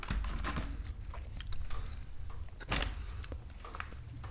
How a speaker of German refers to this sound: Haben wir alle Mund voll, richtig unangenehmes Schweigen im Podcast. Red einfach mit vollem Mund ich weiter.